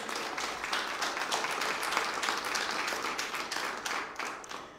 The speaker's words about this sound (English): So I would like also then applause for our trustees and design team as well.